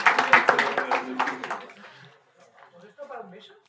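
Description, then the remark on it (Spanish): A burst of applause, dense, loud clapping for about a second and a half, fading quickly; afterward faint voices murmur. “Un aplauso, ¿no?”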